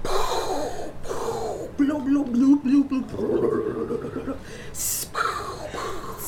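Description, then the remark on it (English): A voice imitates a bubbling volcano, with throaty gurgling and rumbling pulses followed by a short, sharp hiss like escaping steam, loud throughout. “Oh, …, it's a volcano.”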